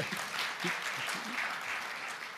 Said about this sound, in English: I'll accept that applause.